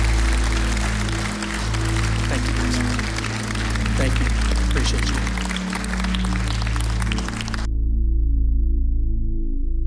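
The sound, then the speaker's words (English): A church audience gives God a clap offering, clapping steadily in a dense, crackling wash for several seconds over sustained low organ-like tones, with a voice speaking. The clapping then stops abruptly while the music continues. “Would you give God a hand, a clap offering, Pastor?”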